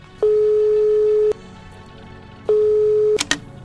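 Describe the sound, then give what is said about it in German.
A telephone ringback tone sounds twice, each a steady, fairly loud single-pitched beep about a second long with a pause between, as a call is placed to someone's mother, followed by a couple of sharp clicks as the line connects. “Ich, ganz kurz, ich würde einmal kurz meine Mutter anrufen, okay?”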